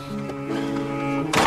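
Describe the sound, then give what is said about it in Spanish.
Steady sustained musical tones play, then a single sharp, loud burst of noise cuts in at the end as a door is shut. “Como sin querer pensar en lo que acaba de hacer, cierra la puerta.”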